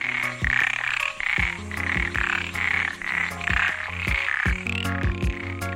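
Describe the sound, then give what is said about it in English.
Male frogs floating on the surface of the water call to potential mates in a steady chorus of low, rumbling croaks that sound like a purr or grunting oink, repeating in quick pulses over a continuous buzzing trill, no voices. “When those little frogs are ready to have big burly tadpoles of their own, the males will float on the surface of the water and call to potential mates.”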